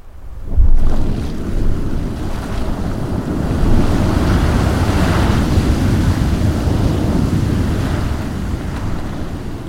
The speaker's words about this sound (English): As these gaseous globules implode in the water, they make a thumping sound. It's so strong, it shakes the ground. The thumps are followed by a rush of bubbles on the surface of the pool. The gases are escaping.